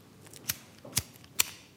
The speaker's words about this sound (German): Mit einem anderen Feuerzeug klappt es.